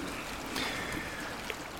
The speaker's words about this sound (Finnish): Eli me ollaan nyt Martinkosken rannalla tai oikeastaan Martinkosken alapuolella eli Kymijoen Ahvion koskien Huruksalan puoleisen kosken rannalla.